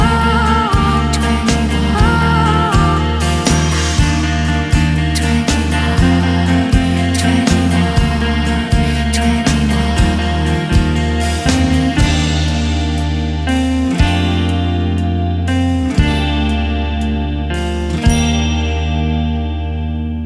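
A pop rock song plays loud and steady throughout, with a full band sound: a sustained bass line, bright guitar tones and regular drum hits, no voices talking over it.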